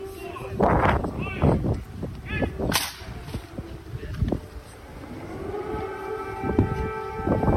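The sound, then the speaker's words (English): An air raid siren, played as Joe Biden's walk-on music, winds up into a rising, steady wail in the second half, layered over a noisy mix of voices and a sharp crack early on. “literally they had planned air raid sirens for his walk on music.”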